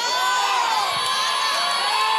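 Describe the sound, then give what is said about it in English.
A room full of people screaming and cheering at once, a loud continuous wall of high-pitched voices that holds steady for the whole stretch with no break. “You here for five of y'all that are screaming in this room, you got to ask God for stuff you previously were never exposed to.”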